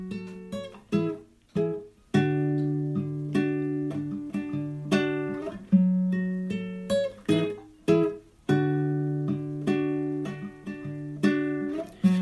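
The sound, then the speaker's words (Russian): Acoustic guitar accompanying a cover of a well-known song, strummed in steady rhythmic chords, each stroke ringing out briefly before the next, played alone with no singing or talking. “В кавер-версии песня известная, известного человека, известная, поется да. душой под гитару на кухне, насколько я понимаю, судя по звуку.”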